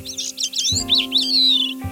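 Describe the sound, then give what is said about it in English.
A bird song played back through a speaker: quick, high chirps in rapid bursts, then a long sliding whistle, loud, with a faint steady electronic hum underneath and no talking. “He then listens to them singing. The songs of the two species, which are slightly different.”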